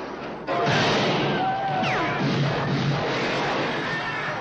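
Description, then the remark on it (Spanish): A loud, chaotic burst of gunfire from the 1969 western film Grupo Salvaje by Sam Peckinpah erupts and keeps going, dense overlapping shots with whining ricochets and crashing noise, like a frantic movie shootout. “Ya veis que escuchamos muchos tiros.”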